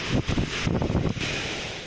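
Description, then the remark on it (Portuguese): Loud, steady roar of storm wind with the dense hiss of heavy rain during a storm in southeastern Brazil, gusting and surging throughout, with no voices. “E a tempestade cai”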